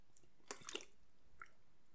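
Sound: person drinking water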